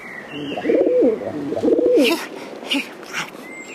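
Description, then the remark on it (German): A dove coos twice in low, soft, rolling phrases, followed by a few faint higher chirps and rustles in the background. “Long John? Taube? Wir sind da.”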